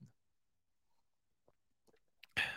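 sipping coffee

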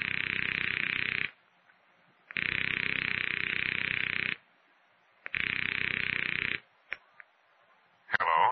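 telephone line ringing

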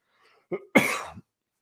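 coughing

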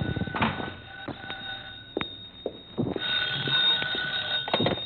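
telephone ringing

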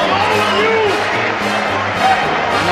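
arena crowd cheering

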